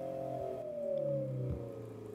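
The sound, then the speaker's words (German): An electric motor, given an added function as an acoustic sound source on top of its rotation, emits a synthetic hum with steady tonal layers that glide slowly downward, giving a smooth, car-like engine tone at moderate loudness with no talking. “Und klingt auch ein bisschen mehr nach Auto, muss man sagen.”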